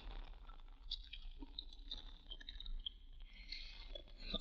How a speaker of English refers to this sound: Do you chew gum all the time?